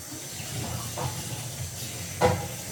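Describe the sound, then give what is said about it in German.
A kitchen tap runs steadily with a broad, hissing splash as a cup is rinsed in the sink, with a brief louder splash or knock near the end. No voices. “Ich muss nämlich die Tasse ausspülen.”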